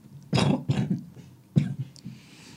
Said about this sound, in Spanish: Así que, bueno, pues tenemos aquí casi casi que concierto de tos a la cuarta potencia.